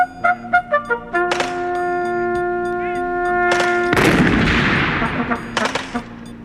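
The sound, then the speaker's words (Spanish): Several heavy booming blasts of cannon fire from artillerymen, one big loud explosion with a long rumbling decay, mixed with sustained horn-like tones and sharper cracks; no voices. “Y al echar los cañonazos, se me descompusieron los oídos.”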